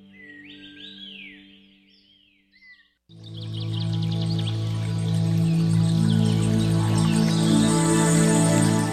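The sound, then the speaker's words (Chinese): Bright, quick bird chirps and whistled trills over a steady low tone for about three seconds, then a louder, dense wash of sustained sound takes over with faint chirping still threaded through. “风声、雨声、鸟鸣声，声声入耳。”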